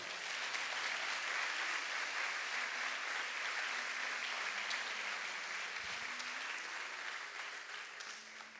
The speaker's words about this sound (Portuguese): Pode dar um salve de palmas para Jesus, amado.